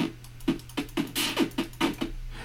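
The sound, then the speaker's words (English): A rapid series of about eight synthesized retro game hit and hurt effects, short noisy zaps with quick downward pitch drops, fired one after another over a faint steady hum. “Uh, here's hit and hurt noises.”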